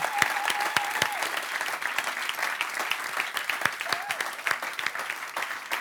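Sustained applause from a large crowd, a dense steady patter of many hands clapping at once. A brief whistle-like tone rises above it early on and again near the end.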